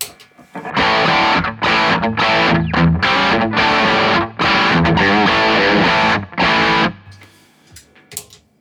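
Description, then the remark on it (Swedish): Distorted electric guitar played through a One Control effects pedal, loud chugging chords in short bursts with brief gaps, ending in a fading, quieter tail. “Ja, och nu är det One Control.”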